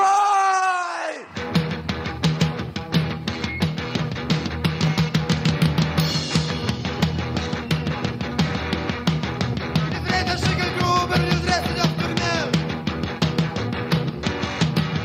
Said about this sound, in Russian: начался с того, что на сцену вышли трое молодых людей в агрессивном панк-макияже и заиграли вот так.